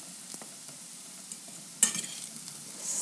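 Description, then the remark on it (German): Kohlrabi sizzles quietly in an uncovered frying pan, a steady faint crackle with a few soft clicks and one sharper stir-like clatter partway through, no voices. “Wir lassen das jetzt noch so lange drin in der Pfanne ohne Deckel jetzt, bis die bis wir die Zwiebel geschnitten haben.”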